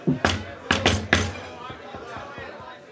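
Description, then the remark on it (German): Four sharp, fairly loud knocks in an uneven rhythm on a door, followed by quieter murmuring voices in the background. “Als ihr zur Tür hinausschreiten wollt, ertönt ein Klopfgeräusch.”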